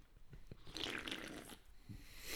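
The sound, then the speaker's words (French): A drink is deliberately opened right into the microphone with a burst of fizzy hiss and scattered clicks, followed by soft gulping swallows of a big sip and a final sharp crackle. No one speaks. “Je vais faire exprès de l'ouvrir dans le micro pour que tout le monde entende comment ça s'ouvre, comme si ça goûtait le bonheur.”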